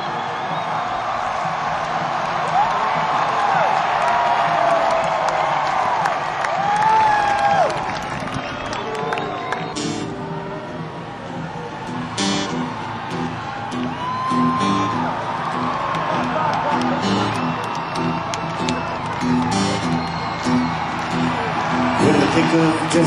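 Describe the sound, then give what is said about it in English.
A large festival crowd cheers wildly and continuously as Conan kneels and bows, with loud whoops, shouts and rising yells layered over a dense roar, punctuated by sharp bursts and clapping. “Crowd is going crazy.”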